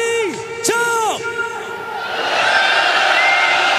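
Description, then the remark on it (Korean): A large outdoor protest crowd at a candlelight rally roars and cheers with all candles put out, demanding the special prosecutor be extended; strong rising shouted voices at the start give way to a broad, sustained wash of massed yelling that swells slightly toward the end. “어, 지금 모든 촛불을 끄고 함성을 외치고 있는 과정입니다.”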